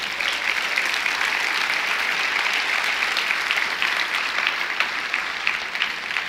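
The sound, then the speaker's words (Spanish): A large audience gives a loud round of applause to Jesus, a dense, steady wash of clapping that holds at an even, fairly loud level for several seconds, with no voices above it. “¿Por qué no le das un fuerte aplauso a Jesús?”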